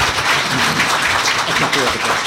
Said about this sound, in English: Well, now we're really done. Let's have a round of applause for Andy McCarthy, Dan Kornstein, John Walsh, and Bob Bork.